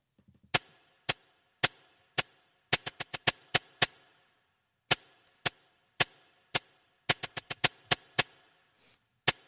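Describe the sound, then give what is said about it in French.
Crisp, dry cabasa hits from a drum machine sample made by Roger Linn, tapped out in a quick syncopated rhythm, about two dozen sharp rattling strikes in clustered groups, clear with no voices or other instruments. “non, ça s'appelle le cabassa alors là, euh, pour le coup, euh, Roger Lynn, euh, quand il a inventé sa, sa c'est étonnant qu'il ait mis une cabassa,”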